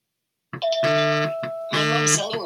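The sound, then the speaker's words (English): A mobile phone rings with a loud electronic melodic ringtone as an incoming call comes through Do Not Disturb mode, two bright bursts of chiming tones separated by a short pause, with no one talking. “Okay, so everybody heard my phone ring.”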